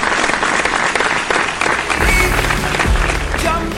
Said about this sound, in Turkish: Alkışlar sana.